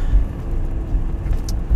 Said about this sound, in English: Traffic Talk, I am sitting in traffic